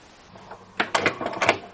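A cassette deck button is pressed and the tape head is pushed upward on its own, as in an automatic cassette drive, heard as a cluster of sharp mechanical clicks and clunks over about a second, with no talking.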